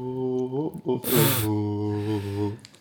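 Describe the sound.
A short victory jingle for the winner of a prediction game, sung by a voice imitating a fanfare: sustained tones with a brief breathy burst in the middle, fairly loud, nearly three seconds long.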